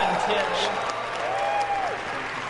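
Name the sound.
audience cheering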